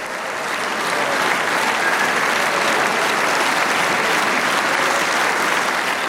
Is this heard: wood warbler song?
no